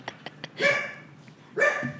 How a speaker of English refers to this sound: Yeah, dude, I love my dogs, but like they bark at everything.